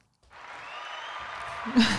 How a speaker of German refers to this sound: genau, Applaus von unserem nicht anwesenden Publikum heute.